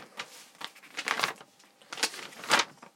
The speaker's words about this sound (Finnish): Mä äsken mä etin ne tilastot. Nyt kuuluu vähän rapina. Väliäkö sille?